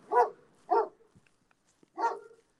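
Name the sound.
dogs barking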